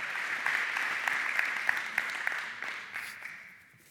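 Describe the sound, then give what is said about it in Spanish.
An audience applauds together for Christ, a dense, steady patter of many clapping hands that gradually fades out toward the end. “O también ustedes ya se los están enchamucando un aplauso a Cristo.”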